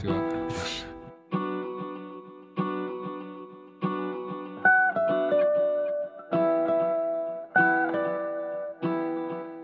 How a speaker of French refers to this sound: je prends plusieurs loops de guitare